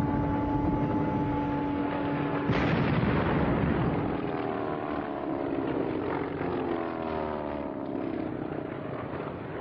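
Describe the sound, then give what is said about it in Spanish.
Loud, continuous droning of propeller warplanes passing overhead as they bomb a crowd of civilians at half past twelve, engine tones sliding in pitch as they fly by, with one sudden sharp blast early on and no voices. “Los aviones bombardeaban palomas, niños, ancianos.”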